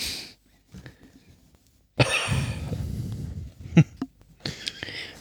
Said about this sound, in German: Und ordentlich husten kann.